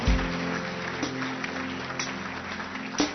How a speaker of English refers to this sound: Please. Clap your hands and encourage them.